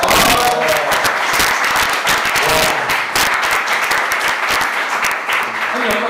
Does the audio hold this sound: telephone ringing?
no